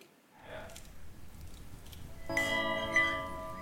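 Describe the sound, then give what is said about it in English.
After a moment of low, muffled rumble, a big wake-up bell is struck and rings out loudly, its rich, sustained tones hanging in the air, with a second strike following shortly after. “The big bell, the wake up bell.”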